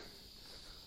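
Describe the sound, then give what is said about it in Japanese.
A steady, continuous high-pitched insect chirring in a mountain forest fills the whole moment, soft, over a faint low outdoor rumble with no voices. “昨日は哲学の道を歩いていたんですけど、今日は山の中に入ってきてまして、えー、またちょっと虫の声とか鳥の声の感じが昨日とは違うかもしれません。”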